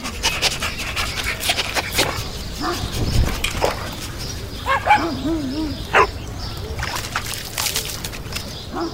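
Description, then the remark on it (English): Dogs panting heavily outdoors in a park in the morning, with scattered short barks and a few high yelps breaking through, amid a busy open-air background with faint chirps. “Mornings in the park are quite an event where dog friends meet and share their scent.”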